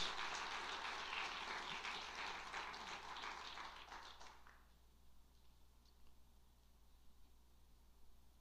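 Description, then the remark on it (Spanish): A crowd at a religious service bursts into steady, dense applause for God that fills the first half, then fades out fairly quickly, leaving only a low background hum. No voices are heard. “Fuerte el aplauso para nuestro Dios.”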